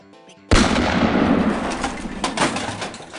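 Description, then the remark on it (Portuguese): A single loud revolver shot, fired instead of opening a champagne bottle, cracks suddenly after a moment of faint tonal sound, then trails off in a long, rumbling, echoing decay. “Porra, Mandrake, isso é um revólver, champanhe é a garrafa.”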